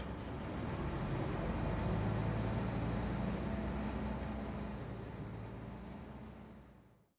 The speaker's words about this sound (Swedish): Han löser biljett och den stinkande bussen rullar iväg.